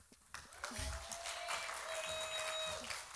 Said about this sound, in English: Now, everybody, clap for my beautiful bride because she's amazing.